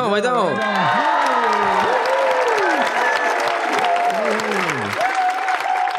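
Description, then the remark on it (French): A crowd bursts into steady, dense applause, with excited cheers and high whoops rising and falling over the clapping for several seconds. “Et on se donne une petite main d'applaudissement?”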